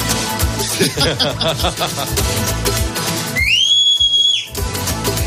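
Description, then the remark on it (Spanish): A single loud, sharp whistle from David the Gnome calling Swift the fox rises quickly and holds a steady high note for about a second, cutting through busy background music. “¿Por qué lo llama con un silbido si tienen poderes telepáticos?”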